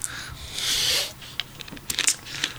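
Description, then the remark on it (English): Someone sips a cold Faygo soda: a soft fizzy hiss swells for about half a second, followed by a few quick wet clicks and gulps, with no talking. “another another cold sip of the Faygo. Well, Faygo ASR.”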